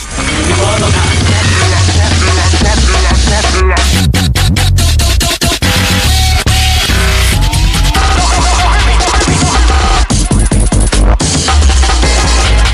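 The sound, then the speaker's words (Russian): Loud, frantic breakcore with rapid, sped-up chopped breakbeats firing in dense bursts over heavy bass, the drums stuttering and cutting in and out at high speed, no voices. “И если вы забыли, то брейкор звучит вот так.”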